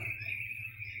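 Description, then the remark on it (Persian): A steady, high-pitched trill of crickets chirping continuously in the background at the Two Rivers shopping mall in East Africa, fairly faint, with a low hum underneath and no one talking. “این صدای جیرجیرکاییه که”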